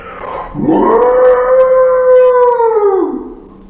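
A single loud, drawn-out cry of a monster out in the forest, lasting about three seconds, swelling up, holding a steady wailing tone, then sliding down, somewhere between a pig's squeal and an elephant's trumpet.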